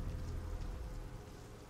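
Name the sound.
heavy rainstorm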